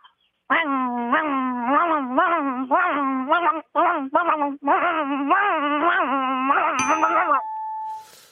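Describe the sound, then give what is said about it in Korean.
A voice imitates a grass-cutting brush cutter with a loud, whining hum that wavers and pulses for about seven seconds, broken by two brief pauses, then stops. “예, 풀 깎는 예측이 그 소리 한번 내보겠습니다.”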